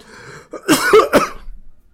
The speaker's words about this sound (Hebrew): שמרוב שאני מתרגש ואני משתעל.